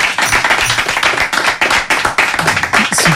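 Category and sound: crowd, applause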